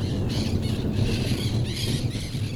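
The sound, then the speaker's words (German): Parakeets screech in a continuous, overlapping chorus of harsh, raspy calls, loud, over a steady low background rumble, outside a house in the Pantanal during a thunderstorm as the first raindrops fall. No one speaks. “Die Sittiche sind am Kreischen.”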